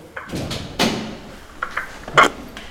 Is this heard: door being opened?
yes